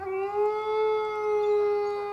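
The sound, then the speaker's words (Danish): A single long wolf howl holds a steady, mournful pitch that rises slightly at the start, clear with no other sounds around it. “Så rejste ulven sig og førte hele sin flok sydpå.”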